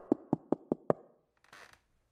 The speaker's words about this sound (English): Moments later, a knock on my door.